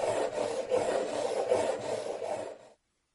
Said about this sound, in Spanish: El vaso seguía dando vueltas y haciendo un ruido estridente contra la mesa. Párate, párate.